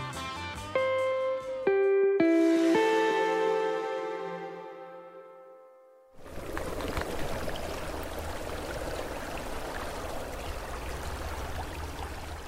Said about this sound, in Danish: Det her det er en øh, rislende lyd af et vandløb, der hedder Hesselund Bæk, som løber ud fra flyvestationen Karup tværs over et hedeområde i øh, Midtjylland, inden den løber ud i det, der hedder Karup Å.